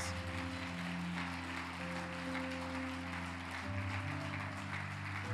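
An audience applauds God in a steady, dense wash of clapping for several seconds, while sustained low keyboard chords play underneath and shift to a new chord near the end.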